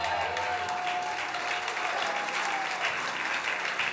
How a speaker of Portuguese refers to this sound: Aplauda ele bem forte.